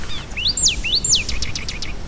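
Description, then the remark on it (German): Two loud, sharp upslurred peeps from a rail, followed by a quick run of five fainter, clipped peeps, all over a low, steady outdoor rumble. “Ringsherum hört man da so einzelne Rallen immer fiepen.”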